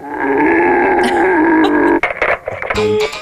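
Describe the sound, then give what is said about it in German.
A real stag bellows in a long, loud, droning roar lasting about two seconds, then breaks into several shorter, rough grunts and a final harsh moan. “So klingt übrigens ein Originalhirsch.”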